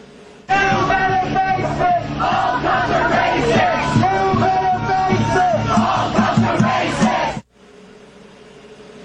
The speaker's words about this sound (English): Meanwhile, in Charlottesville, protesters screamed at the cops.